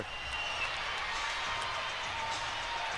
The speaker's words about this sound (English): Um, did you hear that crowd? It's pretty loud Caps crowd.